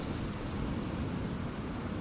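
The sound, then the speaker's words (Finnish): Steady outdoor rush of sea waves mixed with blustery wind in the dark, a continuous low roar with no breaks, even in loudness throughout, with no voices. “Avaan silmäni ja herään ulkoa meren armoilta pimeässä.”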